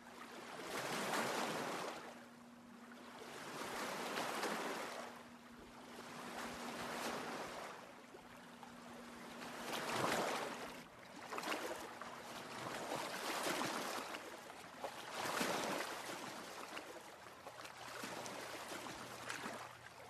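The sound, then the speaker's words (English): Steady flowing water fills the scene, swelling and easing in repeated surges every few seconds, full-bodied, with no voices present. “You've found the water.”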